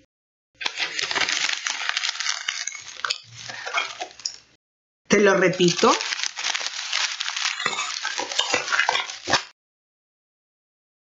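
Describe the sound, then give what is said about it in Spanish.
A sheet of paper being crumpled in two bursts of dense, crackling crinkles, fairly loud, separated by a brief pause in which a voice speaks a few words. “Ese ruido representa una hoja arrugándose.”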